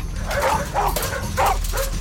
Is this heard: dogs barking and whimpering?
yes